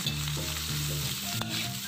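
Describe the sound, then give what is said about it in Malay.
Onion, ginger and garlic sautéing in hot cooking oil until fragrant, a steady sizzle with occasional stirring scrapes, continuous throughout, with a faint low tonal hum underneath and no talking. “Jadi mula-mula kita panaskan minyak masak, tumis bawang besar, halia dan juga bawang putih sampai naik bau.”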